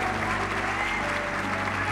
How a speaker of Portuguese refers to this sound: Aplauda o Senhor e adora neste lugar.